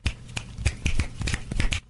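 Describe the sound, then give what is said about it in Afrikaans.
A rapid series of crisp finger snaps, fairly loud, clicking in a quick, slightly uneven rhythm for a couple of seconds before stopping. “wat besig was om iets op die swartbord voor in die klas te skryf, hoor die geklap van vingers en draai om, nog met die wit bordkruit in die een poot.”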